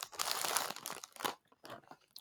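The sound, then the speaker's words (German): Vegan, oat-based salted caramel Schogetten chocolate being nibbled and chewed, a dense run of crisp crackling crunches followed by a few separate bites, fairly loud with short pauses and no talking. “Knabberst du auch was?”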